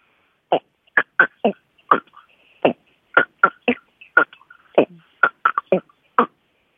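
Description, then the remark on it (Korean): A voice imitates the slow croaking of a Chungcheong Province frog with a steady string of short, throaty croaks, about sixteen in all, spaced in an unhurried rhythm with brief gaps, fairly loud against silence. “충청도 좀 느리죠?”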